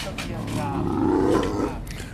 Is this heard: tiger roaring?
yes